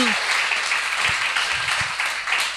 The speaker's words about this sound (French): qu'on applaudit tantôt, mais je veux qu'on redonne une bonne main d'applaudissement.